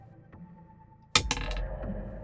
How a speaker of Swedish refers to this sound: Fick tre på tärningen igen.